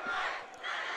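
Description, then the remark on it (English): A large crowd roars and shouts together in a sustained, dense wash of voices, briefly dipping before swelling again: the Harding student section chanting at a football game with under 10 minutes to go. “If you can hear that in the background, that's the Hard- Harding uh, student section.”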